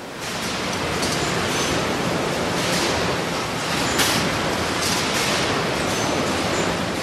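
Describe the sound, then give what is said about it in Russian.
A steady, dense rush of ocean waves fills the scene, with a continuous low rumble from a passing tanker carrying several tonnes of oil cutting through the waves beneath the surf, and faint brighter swells washing through. “Вы слышите шум волн. Их рассекает танкер, который везет несколько тонн нефти.”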